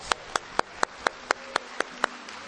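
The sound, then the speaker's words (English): Hands clap in a steady, brisk rhythm, about ten sharp claps in under three seconds, each crisp and evenly spaced, with no talking. “Clap your hands.”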